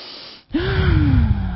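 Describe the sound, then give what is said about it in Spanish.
After a brief pause, following a deep inhale, a long, deep breath is pushed out through the mouth to relax, fairly loud, with a slight voiced tone that slowly drops as it fades. “Respiras profundo y exhalas todo ese oxígeno, ¿sí?”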